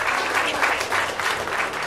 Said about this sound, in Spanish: Esos aplausos que suenen. Ahí, ahí. Ahí me está gustando.